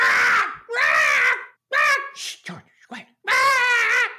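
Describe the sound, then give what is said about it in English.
A female pet bird squawks loudly in a series of shrill, wavering cries, some long and drawn out, others short and clipped, with brief pauses between them. “George sounds really good. Oh, she's great. She's got a voice box on her.”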